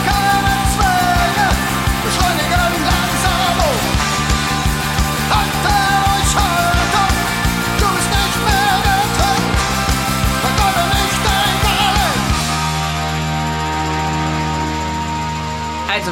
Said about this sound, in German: Wer war denn da bitte Pate für diese Schraddelgitarre? das fragt sich, ne? Ja, welche musikalischen Vorbilder hat er da abgegriffen?